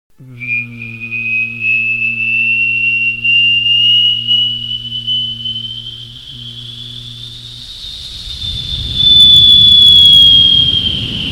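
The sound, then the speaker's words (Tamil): A voice imitates an airplane taking off: a low engine drone under a thin, steadily rising whistle, giving way to a loud roaring rush near the end. No words are spoken. “next ஒரு flight take off ஆனால் எப்படி இருக்கும்”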